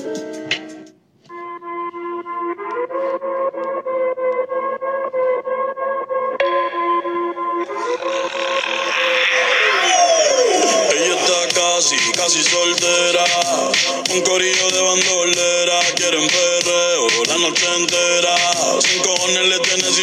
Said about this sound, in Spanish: Así que eh, espero que disfruten esta nueva canción